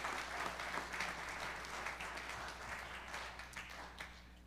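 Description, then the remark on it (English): An audience breaks into a steady round of applause for its volunteers and for itself, many hands clapping in a dense, continuous patter that holds fairly even for several seconds before easing slightly toward the end. “So give our volunteers a round of applause and give yourself a round of applause.”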